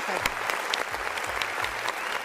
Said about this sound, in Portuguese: Aplausos